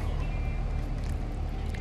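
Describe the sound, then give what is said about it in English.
A car's engine rumbles as it passes through a parking lot, a steady, heavy low drone that holds at an even loudness throughout, with faint higher hiss over it and no voices. “how much of that car is coming up every time they pass?”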